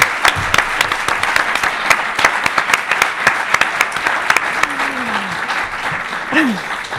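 A crowd applauds steadily with dense, sustained clapping throughout, loud, while a few faint voices and brief exclamations rise underneath.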